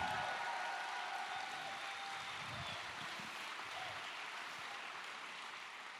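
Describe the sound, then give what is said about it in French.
A large church audience claps steadily for several seconds when asked to applaud, a dense, continuous wash of applause with faint sustained tones ringing underneath. “Pouvez-vous applaudir et dire, Seigneur, rien ne va venir nous désunir.”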